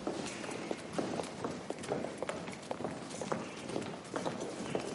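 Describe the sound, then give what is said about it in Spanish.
Several sets of footsteps walk along the hard stone floor of a gallery surrounding a courtyard, overlapping in an uneven, steady rhythm with a slightly reverberant, hollow echo. “Felipe y Debeir caminan por la misma galería, pero en sentido contrario.”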